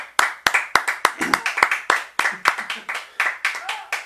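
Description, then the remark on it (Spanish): Scattered audience applause welcoming a guest at a live show from El Ventanal: a steady run of sharp, uneven hand claps that keeps going for several seconds, with faint voices murmuring underneath. “Un aplauso por favor.”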